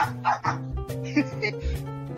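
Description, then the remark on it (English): A dog named Buster barks several times in short, sharp bursts, fairly loud, over a steady background of sustained musical tones. “Me and my dog Buster really love listening to Israel News Talk Radio.”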